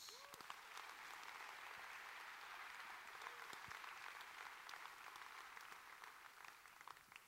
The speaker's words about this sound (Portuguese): Quem pode dar um aplauso ao Senhor Jesus?